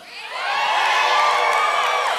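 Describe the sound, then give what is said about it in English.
An audience of single people cheers and whoops loudly and steadily after being asked to make some noise, many voices blending into a sustained roar with high-pitched shouts rising above it. “Uh, if you're single, make some noise. All the single people, all the single people.”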